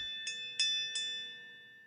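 A bell struck three times at an even pace, each strike ringing out with a bright, sustained metallic tone that hangs and slowly fades. No voices, fairly quiet.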